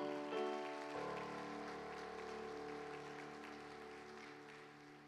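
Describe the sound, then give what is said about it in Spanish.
A church audience claps for the Lord together in a dense, steady wash of applause lasting several seconds, with sustained keyboard chords humming underneath and no one speaking. “La iglesia le da palmas fuertes al Señor.”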